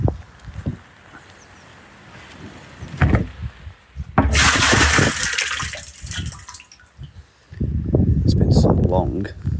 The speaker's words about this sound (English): I'm just going to take the lid off one of my uh, water butts.